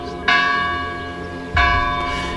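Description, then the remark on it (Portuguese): The church bell of the village of São Pedro do Rio Seco tolls twice for a burial, each strike ringing out with a rich, lingering hum that slowly fades before the next. No voices, just the resonant bell. “Teve honras de Estado e missa solene nos Jerónimos, mas quis ser sepultado na aldeia natal de São Pedro do Rio Seco, dobrado pelo sino, que é o mesmo da infância.”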